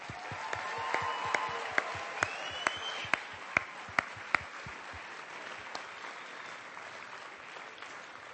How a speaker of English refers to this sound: And I just love the fact that they're here in Los Angeles because I have so much respect for these people. The Braille Institute staff, please. Round of applause.